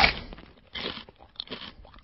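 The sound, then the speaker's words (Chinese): Crunchy chewing from a fourteen-year-old boy in South Korea eating on a daily online livestream, in several bursts of crisp, crackly bites separated by short pauses, fairly loud with no talking. “韩国一个十四岁的少年，每天在网上直播吃饭，连打嗝带上厕所”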